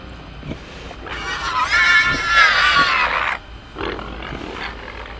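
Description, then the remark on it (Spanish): A huge, obese pig gives a loud, harsh squeal that rises and shrieks for about two seconds, grating and piercing, then breaks off, leaving quieter grunting noises behind it. “Y luego, algo chilló justo enfrente de mí.”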